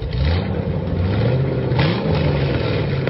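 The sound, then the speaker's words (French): A car engine runs, its steady low rumble rising in pitch a couple of times as it revs, with no voices over it. “eh, venez près de la voiture, je veux vous parler.”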